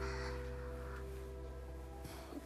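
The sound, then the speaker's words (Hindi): A crow caws a few times in short, harsh bursts, fairly faint and spread across the moment, over a steady low electrical hum with no one speaking. “काका वो जो काका थे वो एक कौवे थे”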